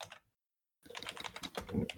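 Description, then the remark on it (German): Rapid, loud clicking of keys on a computer keyboard after a short silent gap, with quick irregular keystrokes filling the rest of the moment. “Daniel tippt irgendwas, das ist extrem laut”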